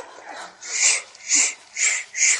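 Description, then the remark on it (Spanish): Four forceful, hissing exhalations in a steady rhythm, each a breathy 'shhh'-like rush of air, made as the 'liver sound' of a breathing exercise, with no talking. “Ah, poquito de sonido de hígado.”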